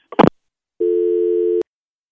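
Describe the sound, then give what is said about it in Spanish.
A brief clatter, then a single steady, buzzy telephone tone that holds for under a second at a mid pitch and cuts off sharply with a click, as when a call is hung up. “¿cómo que colgó?”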